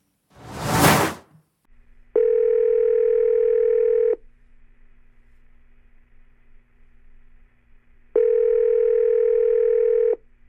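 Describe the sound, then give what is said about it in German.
A short whoosh, then a telephone line tone from an outgoing call: two long, steady electronic beeps about two seconds each, separated by a four-second pause, with no voices. “Ich wasche mir, wasch mir kurz die Hände und dann schnappe ich mir mein Telefon und rufe mal jemanden an.”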